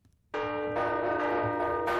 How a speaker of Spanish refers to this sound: El sonido de las campanas será protagonista hoy en Arruazú de la mano de la Asociación de Campaneros de Navarra, que trabaja por recuperar los repiques manuales y buscar relevo.